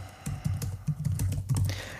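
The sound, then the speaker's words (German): Rapid typing on a computer keyboard as the German word 'Ausrüstung' is entered as a numbered list item: a quick run of about a dozen soft, clicky keystrokes in an uneven rhythm, with no voices present. “Da schreibe ich mal Ausrüstung.”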